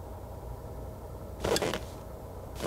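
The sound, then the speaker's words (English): A car engine idles with a steady low rumble, interrupted around the middle by a brief, louder burst of noise before settling back to the same even drone. “That's a car.”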